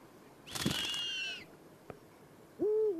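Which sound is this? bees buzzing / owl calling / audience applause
owl calling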